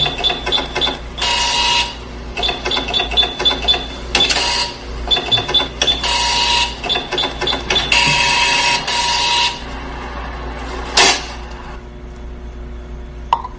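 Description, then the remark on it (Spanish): A cash register whirs and chatters through a receipt print as a customer settles the bill, bursts of rapid mechanical buzzing broken by short pauses, ending with a sharp tear-like burst, fairly loud with no talking. “Ok, ya vamos aquí a la caja registradora.”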